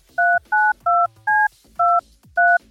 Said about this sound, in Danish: jeg ved godt, du ikke kender mig, men jeg har bare tastet et random nummer ind